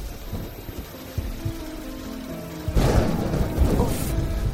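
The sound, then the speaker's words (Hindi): A low rumble builds, then thunder breaks loudly partway through and a dense, steady hiss of rain follows, continuous to the end. “लगता है फिर से बारिश होने वाली है”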